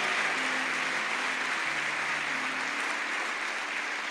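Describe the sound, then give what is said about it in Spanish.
An audience applauds steadily for Christ Jesus at an evening service, a dense, continuous wash of many hands clapping at an even loudness throughout, with faint low tones humming underneath. “Denle un aplauso fuerte a Cristo Jesús esta noche.”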